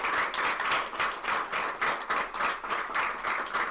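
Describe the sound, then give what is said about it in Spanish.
An audience at Poets Passage applauds the presenters' courage at the close of a presentation, steadily for several seconds, a dense wash of many hands clapping with a faintly pulsing, rhythmic swell and no voices over it. “Dense un aplauso por esta valentía, por estar aquí, por separar el espacio y el tiempo.”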